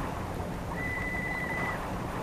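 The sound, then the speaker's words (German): A small whistle sounds a single steady, thin high note for about a second, fairly faint against a constant rushing background noise, with no talking. “Und pfeifen tut sie auch schon.”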